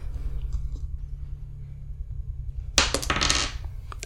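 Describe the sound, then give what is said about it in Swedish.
Dice rolled across a hard surface in a tabletop game, coming up a one: a quick burst of rattling clatter lasting under a second, over a steady low background hum, with no talking. “Nej, jag slår en etta.”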